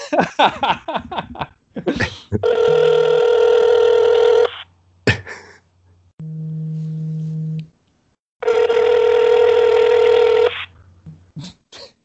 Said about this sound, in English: Give him a cellular phone call. I think I will.